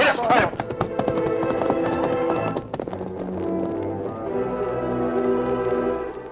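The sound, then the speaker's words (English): Rapid hoofbeats of galloping horses, among them the horse Silver, ridden toward the brush trail, drum steadily beneath a swelling orchestral music cue, the clatter loud at first, then blending into the music as it continues. “we ride as far as the beginning of the brush trail.”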